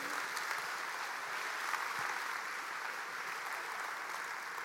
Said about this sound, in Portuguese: Quem concorda, dê um aplauso bem forte ao Senhor. Amém?